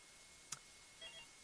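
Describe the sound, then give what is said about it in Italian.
A faint click followed by a couple of soft, high electronic beeps signalling another incoming phone call, heard quietly with no voices. “No, c'è un'altra telefonata, pronto.”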